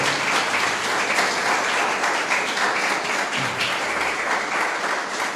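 A church audience applauds steadily, giving applause to Almighty God, a dense wash of many hands clapping at once, loud and sustained for the whole stretch with no voices standing out.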